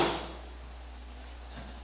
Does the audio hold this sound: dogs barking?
no